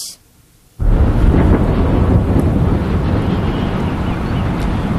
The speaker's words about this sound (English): Bombs rained down on a besieged Gaza today and over the weekend as Israel says it is targeting Hamas.